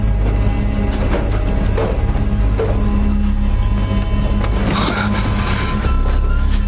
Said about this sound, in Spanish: El tren pierde velocidad en la noche.